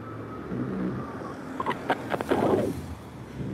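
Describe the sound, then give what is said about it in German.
A taxi drives past on a street, its engine and tyre noise swelling briefly over steady low traffic rumble and wind, with a few sharp clicks as it goes by. “Jetzt kommt ein Taxi.”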